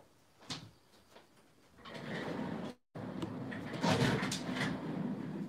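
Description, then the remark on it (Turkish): A few light knocks, then a chair pulled across a hard floor for someone to sit on, with a long, rough scrape, briefly pausing before scraping again, fairly loud. “Oturak kardeş sana bir sandalye çekeyim mi?”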